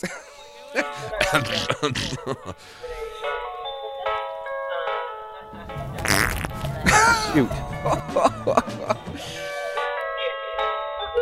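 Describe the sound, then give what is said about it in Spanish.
Several loud, sputtering fart noises burst out over a bright, jingly electronic melody, with brief voices mixed in; the rudest blast lands near the middle. “he conocido a varios que la juegan de tos, el ruido zafa, pero la baranda que es.”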